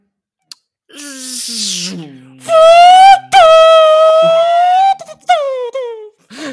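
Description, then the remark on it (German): A person imitates a Formula 1 car with their voice: a buzzy revving build-up, then loud, sustained high-pitched engine whines broken by a short gap, ending with a quick falling burst. “du bist ja großer Formel 1-Fan”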